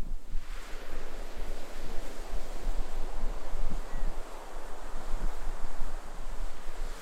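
Distant ocean waves wash in a steady, broad roar, a continuous hiss of surf with low rumble and some wind noise, no voices present.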